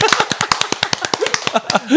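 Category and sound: crowd, clapping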